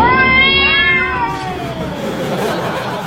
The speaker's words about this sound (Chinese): 近日，江苏常熟新庄派出所喵声一片，怎么了？这是又被一大群猫咪占领啊！